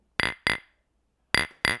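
Glasses clink together in a toast: four bright, ringing taps in two quick pairs separated by a short pause, with no voices.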